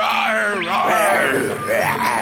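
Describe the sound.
Zebras roaring while mating, as a ringtone: loud, continuous, strained braying cries that swoop up and down in pitch, with no talking.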